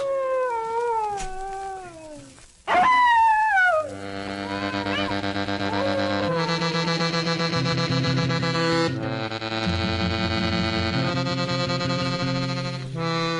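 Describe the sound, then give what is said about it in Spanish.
A dog on a street corner in the village of San Blas at night howls in long, wavering, rising and falling cries for a few seconds, then steady sustained musical chords take over and continue to the end. “Tal vez algún burro o algún perro que en la esquina se ponía a aullar como quien mira a un muerto.”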